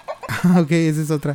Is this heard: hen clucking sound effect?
yes